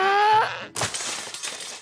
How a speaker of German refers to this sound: Ja, Kopernikus ganzer Papierkram ist runtergefallen.